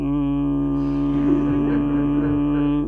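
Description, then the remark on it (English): A voice hums a steady, buzzing drone for about three seconds, imitating a motorboat engine coming across a still lake, with a continuous, wavering tone and no words. “But then when a motorboat comes”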